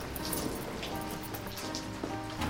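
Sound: rain falling on street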